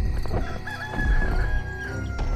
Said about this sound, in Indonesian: Tidak berapa lama, terdengar suara ayam berkokok.